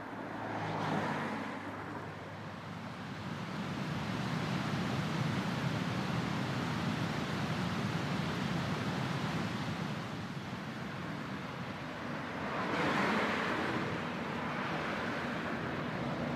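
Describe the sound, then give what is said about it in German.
Steady road noise from a car driving along Oberföhringer Straße toward Freising, down the right bank of the Isar, a constant broad rumble and hiss that swells briefly near the start and again toward the end, as if other vehicles pass. “Und da fahre ich jetzt entlang und weiter ins frühere Fürstbistum Freising, die rechte Isarseite hinunter, an der der Fluss rauscht.”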